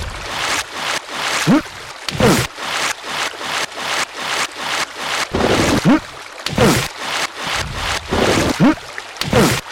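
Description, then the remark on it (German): A steady run of short water splashes and sloshes, with several louder, heavier splashes standing out, like something dropping into water again and again, as a video game character jumps off too early and falls into the water. No one speaks. “schon wieder zu früh abgesprungen. Zack. Und ich bin wieder im Wasser.”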